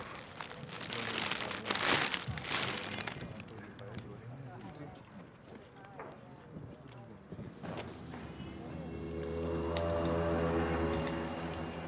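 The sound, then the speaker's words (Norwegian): Rustling, crinkling plastic wrapping as a bouquet of flowers is laid down at Dagny Juel's grave, with a few crunchy handling noises, then a low sustained hum toward the end. “Hva skal jeg Ja legge ned blomstene nå ved Dagny Juels grav.”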